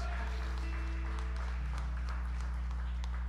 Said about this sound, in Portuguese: Dá salva de palmas a Deus, né?